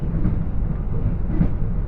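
A steady, loud low rumble of the JR West limited express train Hida 14 rolling along the rails of the Takayama Main Line between Toyama and Inotani, heavy and continuous with a dense roar and no voices.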